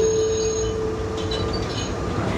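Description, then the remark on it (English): An old red and white E1 model tram of Vienna's Wiener Linien network rolls along its rails with a steady metallic rumble, a thin wheel-squeal whine hanging over it throughout, fading slightly toward the end. No voices. “Vienna has the sixth largest tram network in the world, and the red and white E1 model has come to define the look and sound of the city.”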